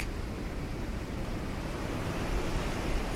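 Steady, continuous surf washing onto a beach at night, a dense low rumble with hissing spray and no distinct individual breakers, moderately loud, with no voices.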